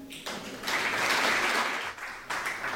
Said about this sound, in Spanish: Un fortísimo aplauso.